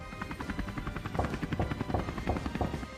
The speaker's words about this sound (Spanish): Entonces ya a la media hora eh, escuché los helicópteros